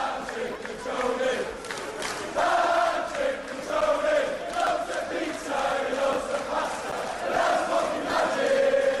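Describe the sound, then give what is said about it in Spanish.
A large crowd of football fans sings a rhythmic chant together, loud and sustained, with repeating melodic phrases rising and falling over steady crowd noise. “Pero bueno, oye, tenemos nuevo, nuevo hit del verano.”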